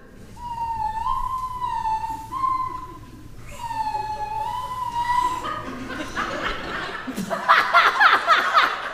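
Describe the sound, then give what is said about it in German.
Someone hums the German national anthem in two slow phrases of long, steady notes, then dissolves into giggles and laughter that grow louder toward the end. “Deutsche Nationalhymne.”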